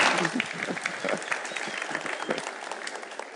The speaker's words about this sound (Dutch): Juist, heel goed. Keurig, dankjewel. Super, applaus.